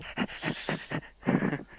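A dog pants rapidly, a steady run of quick, breathy huffs in a regular rhythm, with a brief pause before the panting picks up again.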